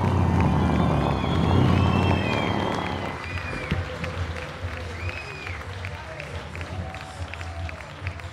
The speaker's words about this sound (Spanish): Por favor, reciban con un aplauso y una bulla a la señorita